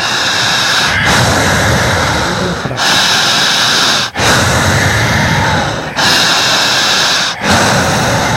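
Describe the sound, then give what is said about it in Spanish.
Loud, forceful deep breaths drawn in through the nose as an instructed breathing exercise, a series of long rushing inhales in a steady rhythm, each lasting over a second with brief pauses between. No one speaks. “Jale el aire. Fuerte, siempre fuerte.”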